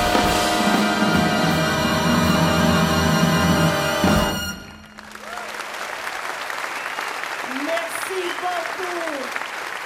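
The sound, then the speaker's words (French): A big band's music cuts off, then the large audience of the Jazz sous les pommiers festival in Coutances, Normandy, on 19 May 2023 breaks into sustained applause, with scattered cheers and whoops rising over the steady clapping. “telle que le public du festival Jazz sous les pommiers a pu l'apprécier, l'acclamer et la célébrer le 19 mai 2023 à Coutances en Normandie”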